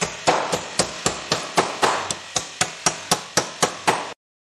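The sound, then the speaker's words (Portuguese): A bricklayer hammers steadily, about sixteen sharp, ringing blows in a quick even rhythm, fairly loud, with no voices, stopping abruptly after four seconds. “Agora, tudo é possível se o pedreiro de manhã cedo começar a martelar.”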